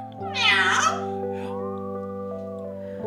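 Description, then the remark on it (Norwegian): A parrot named Sara, in her cage in Jon Bing's kitchen, chatters and gives a loud, cat-like meow near the start, then a softer drawn-out warbling call, over a steady low background hum. “Papegøyen Sara skvaldrer og mjauer i buret sitt.”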